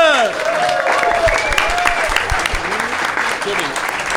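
An audience applauds steadily for several seconds for the judge, a dense wash of clapping with scattered cheers and whoops rising above it, fairly loud.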